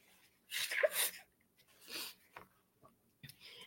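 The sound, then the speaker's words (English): A sharp sneeze bursts out, followed by a softer breathy exhale and a few small sniffs and mouth clicks amid quiet. “I feel like I have to sneeze.”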